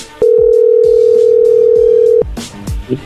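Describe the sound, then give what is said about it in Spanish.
A loud telephone dial tone hums at one steady, mid-low pitch for about two seconds as a call is redialed after the other person hung up, then cuts off abruptly, leaving a few soft clicks and rustles. “A ver, márcale de nuevo.”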